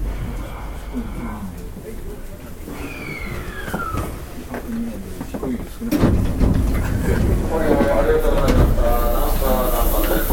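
A subway train slows with descending squeals and rumbling, then halts at a Japanese station with transfers to the Sennichimae, Kintetsu, Nankai and Hanshin lines; the doors on the left side slide open with a burst of noise and hiss, and crowd murmur and station ambience fill the background.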